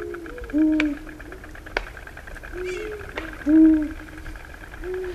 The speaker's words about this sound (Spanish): Están los búhos diciendo bu, como es de rigor. Y uno de ellos está, yo creo que es una hembra, pero no sabría decirlo, está dando vueltas por un claro del bosque, es de noche, a noche cerrada, y cada tres aleteos pega un palmetazo.